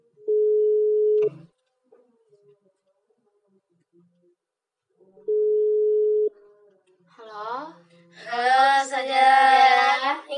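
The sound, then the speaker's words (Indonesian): A telephone tone sounds while a call is placed: two steady one-second beeps about four seconds apart, clear, before a voice starts speaking loudly. “oke kita langsung ke TTU uh, tanya-tanya terus aja kita telepon ya kita telepon aja langsung”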